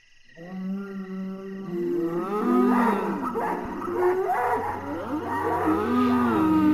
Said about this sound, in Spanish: De pronto, comencé a escuchar que las vacas estaban mugiendo.